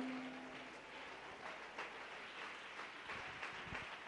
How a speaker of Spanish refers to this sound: Él se merece un aplauso, aleluya.